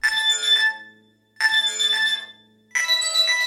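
A phone rings in three bright, chiming bursts with short pauses between them, clear, with no voices; it is Micropig phoning Molasses, heard as a little buzz inside his ear as he steps up onto his front porch.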